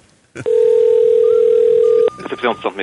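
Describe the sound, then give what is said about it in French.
A single steady ringback tone of an outgoing phone call to a medical centre hums loudly for about a second and a half, then cuts off as a voice begins speaking over the line. “Fait qu'on appelle au centre médical ou à travail.”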